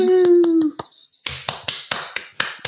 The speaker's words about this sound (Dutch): Ja, klappen.